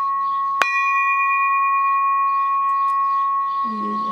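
A small 7 kg bell struck once, tuned to C-sharp 4, with a sharp clang that rings into a bright, steady sustained tone fading only slightly over several seconds.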